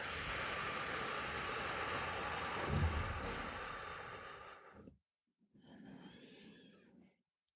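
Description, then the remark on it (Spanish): A long, steady exhalation blown out through the mouth during a breathing exercise, after a four-count inhale and a held breath. It is airy and lasts about five seconds, followed by a brief pause and a shorter, softer breath. “Una exhalación larga por la boca, sopla el aire.”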